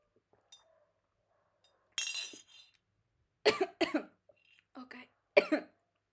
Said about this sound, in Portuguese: eu estou aqui com a minha água, devia estar aqui, em vez de água de café, eu peço desculpa, mas vou beber água.